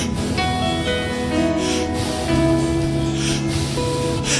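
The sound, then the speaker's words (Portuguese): Gentle, breathy blowing, like softly coaxing a candle wick, comes in three short airy puffs over a steady bed of sustained musical tones, with no talking. “Aí vem a mãe, coloca a mão, e alguém começa a fazer mão e concha, e começa a fazer assim, bem levezinho.”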